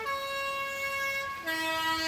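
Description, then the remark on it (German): A bus arrives, its loud, sustained horn blaring in two long tones, the pitch dropping partway through, with no talking. “Uh, nein, das ist mein Bus. Ich muss in die Schule.”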